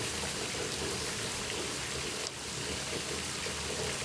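Steady shower spray hisses continuously, a dense, even wash of falling water with a brief dip in the middle before it resumes; no one speaks.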